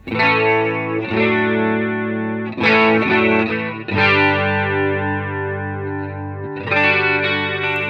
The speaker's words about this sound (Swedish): Då har vi då ensemble, som ska vara... Ja, vi kan lyssna på den. Helt Korus helt enkelt.